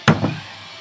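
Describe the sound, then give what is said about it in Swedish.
Glasses of water clink together in a toast, two quick knocks in succession with a dull, thudding quality and a brief fading tail, then quiet room tone. “Ja, vi skålar med vatten då.”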